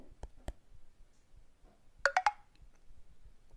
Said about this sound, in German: So. Mehr tut sich hier erstmal so nicht. Ähm, wir haben nur diesen Signalton bekommen und mein Finger pappt nach wie vor am Bildschirm.